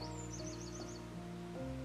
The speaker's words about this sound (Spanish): También se pueden escuchar los sonidos del canto de los pájaros